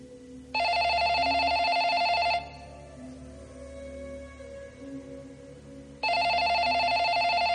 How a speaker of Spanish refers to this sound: El teléfono suena en casa de David, que está dormido en el suelo en posición fetal.